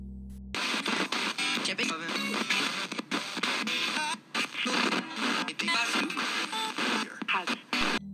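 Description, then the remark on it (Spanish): A spirit box, a device that sweeps through any radio station within range, rapidly scanning with a continuous harsh hiss of background white noise broken by choppy fragments of voices and static bursts, loud for several seconds. “Lo que acaban de oír es lo que despide este dispositivo, cuya función principal es barrer cualquier estación de radio al alcance con ruido blanco de fondo”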